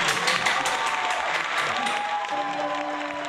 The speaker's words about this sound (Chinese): 好嘞， 好 来 好哎， 掌声欢迎。